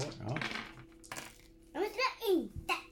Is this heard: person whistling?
no